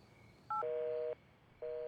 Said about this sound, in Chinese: 两人挂了电话，都僵持在原地，任凭风吹散了他们的头发。